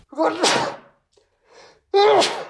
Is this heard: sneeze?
yes